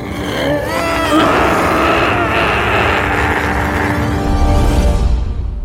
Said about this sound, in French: Et à votre avis, que fait un dinosaure quand il a peur Oui, il hurle, mais il hurle très, très fort.